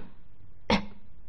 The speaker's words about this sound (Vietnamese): Gã ho khan Âm thanh vô cùng đau đớn